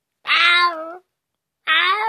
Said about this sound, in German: Jetzt heul nicht, Kater.